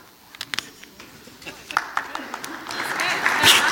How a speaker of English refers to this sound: You don't have to applaud for that. It's just water.